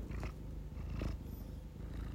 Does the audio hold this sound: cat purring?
yes